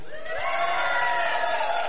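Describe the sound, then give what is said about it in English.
An audience of cat people cheers and shouts together when called on, in a steady, loud roar of many overlapping voices, sustained for a couple of seconds without any single speaker standing out. “All right, you guys, you guys, cat people, this is your opportunity. Let me hear the cat people.”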